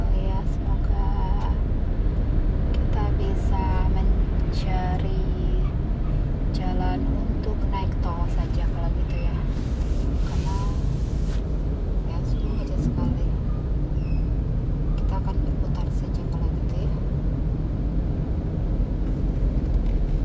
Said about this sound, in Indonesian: Ya, suasana Bogor macet sekali.